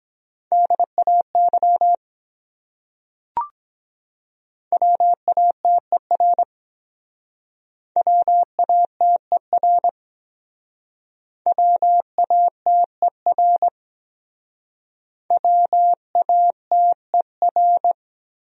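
Morse code tones at 17 words per minute spell out a word in five quick bursts of dots and dashes, each a steady mid-pitched tone separated by short pauses, with one sharp click early on and no voices.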